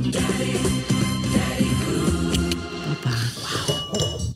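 A drinking glass is dropped, giving a few brief, bright clinks midway through, heard over a steady, low, humming background that continues throughout.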